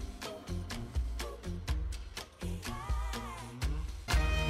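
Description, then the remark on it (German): An upbeat pop song, requested by a listener, plays on its own on a radio show, with punchy drum hits, a steady bass line and bright layered instrumentation at a moderate, even volume. “ihr hört es wahrscheinlich schon im Hintergrund.”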